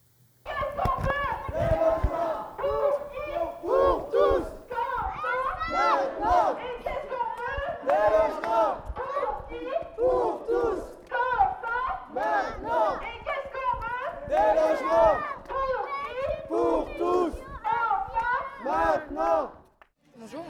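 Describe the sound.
Many voices shout together in a dense crowd, rising and falling in rhythmic bursts like a chant at a street demonstration held on a Saturday afternoon at the prefecture, continuing steadily for about twenty seconds.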